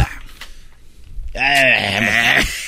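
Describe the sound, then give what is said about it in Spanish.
A single drawn-out cow moo, loud, wavering in pitch for about a second, preceded by a moment of faint rustling and low background noise. “Eso dijeron las vacas.”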